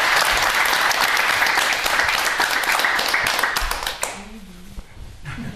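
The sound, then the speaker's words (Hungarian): Dense, steady applause from a Hungarian TV studio audience for guest Budai Gyula, a member of the Hungarian parliament, rings out for about four seconds, then drops away quickly, leaving a faint voice and a few scattered claps. “Neked szólt a taps, nem nekem.”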